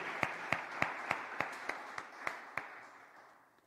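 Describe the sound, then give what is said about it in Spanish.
An audience applauds the Lord for a step of faith, with a steady beat of about nine sharp claps in unison riding over a dense wash of crowd clapping that gradually fades out. No one speaks. “Un aplauso al Señor por ese paso de fe.”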